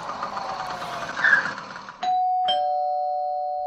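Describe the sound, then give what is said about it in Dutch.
A two-tone doorbell chime rings out loudly, a bright first tone at two seconds followed by a second tone that lingers and slowly fades, after a stretch of rumbling engine-like background noise. “ja, ding dong.”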